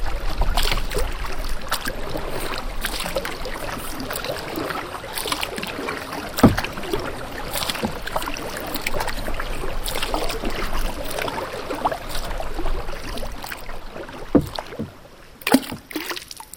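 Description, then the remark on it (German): Canoe paddles dip and pull through water in steady strokes in Katherine Gorge, northern Australia, with splashes and drips over a constant watery wash and faint breeze; a few sharper splashes stand out near the end. “Oder ans Kanufahren in der Catherine Gorge im Norden Australiens.”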